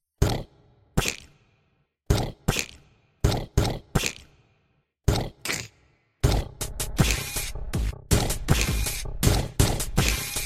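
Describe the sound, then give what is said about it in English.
A voice imitates lightning-bolt thunder crashes: a string of short, harsh, noisy bursts with gaps between them, then a louder, unbroken crackling roar filling the second half. “Insert lightning bolts. But like really crappy sounding ones, like, you know, just like.”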